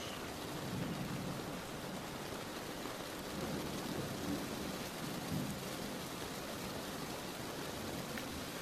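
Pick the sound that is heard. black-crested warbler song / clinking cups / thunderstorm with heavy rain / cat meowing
thunderstorm with heavy rain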